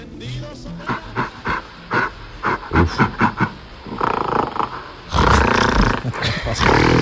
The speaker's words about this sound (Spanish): Cuando los monos se ponen contentos hacen este sonido.